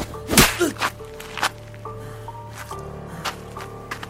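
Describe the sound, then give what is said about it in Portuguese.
A loud, sharp slap across the face lands, followed by a few softer smacks and thumps spaced over the next few seconds, all over a low, steady background hum. “O segundo tapa é tão forte quanto o primeiro.”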